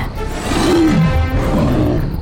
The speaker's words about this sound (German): Der Drache brüllte und öffnete den Mund weit genug, um ein Gebiss mit messerscharfen langen Zähnen zu zeigen und blies eine riesige, todbringende Feuerfontäne aus.